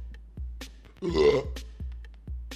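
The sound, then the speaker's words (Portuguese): A loud, guttural burp caused by reflux just after dinner rumbles out for about half a second, framed by a few soft clicks and mouth noises with no talking. “Foi mal, galera. Tô com um refluxo.”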